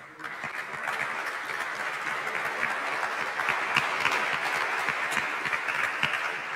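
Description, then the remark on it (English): Steady applause from an audience for the panelists at the end of a panel discussion, a dense crackle of many hands clapping that rises quickly and holds at an even level for several seconds, with no talking over it. “How about a round of applause for our panelists?”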